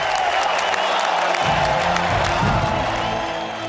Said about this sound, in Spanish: y las cosas bien hechas, en este espacio se llevan la fuerte ovación del público.